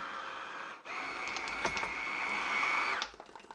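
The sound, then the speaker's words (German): An immersion blender, plugged in with the lid on its container, whirs steadily for a little over two seconds with a constant high-pitched motor whine while blending ingredients, then cuts off abruptly. No one speaks. “So, Deckel drauf, Stabmixer einstecken, nicht vergessen.”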